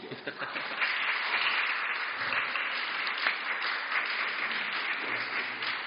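After a prayer, a crowd applauds steadily for several seconds, a dense, even wash of many hands clapping at a constant loudness without pauses or voices over it.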